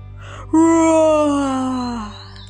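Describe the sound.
A single long, loud roar of distress, voiced by a person imitating a lion caught in a trap and calling for help: a sustained moaning cry lasting about a second and a half that slowly sinks in pitch before cutting off.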